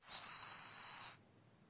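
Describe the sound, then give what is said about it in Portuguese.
A voice imitates a beer can being cracked open: one steady, bright hissing burst of about a second that then cuts off abruptly, fairly loud, with no talking. “É porque, eu tava abrindo, é porque eu tava abrindo uma lata de cerveja.”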